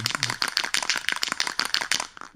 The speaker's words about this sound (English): so it sounds like someone's tagging something on the on the side of the building.